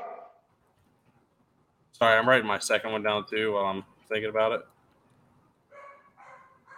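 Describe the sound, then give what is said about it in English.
A dog barks once, then a person talks, and a couple more barks follow near the end, fairly loud but slightly quieter than the voice. “Oh, what are you barking at?”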